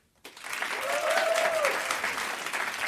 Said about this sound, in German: Oh, so jetzt. Äh, jetzt euer Applaus für die Frage